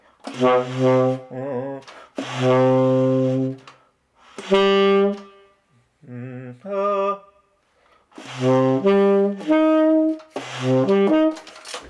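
A single voice sings sustained notes that outline a minor triad, in several short phrases with pauses between them, clear with a slight wavering pitch.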